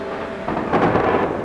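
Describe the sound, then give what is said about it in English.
A thunderstorm roars with a dense wash of rain and wind, and a low roll of thunder swells up halfway through, loud, with no voices. “The storm subsided.”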